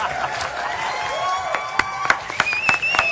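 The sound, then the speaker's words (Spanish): A crowd applauds warmly, a steady wash of clapping with sharper claps standing out, while high whistles and cheers rise over it toward the end. “Ovación calurosa, pues muy su gusto, cómo no.”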